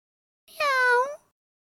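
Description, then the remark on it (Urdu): A single drawn-out cat meow, clear, rising slightly then falling over about half a second, heard alone with no talking. “ابھی دونوں یہ باتیں کر ہی رہے تھے کہ گھونگے نے دور سے بلی کو آتے دیکھا بلی یعنی کیٹ”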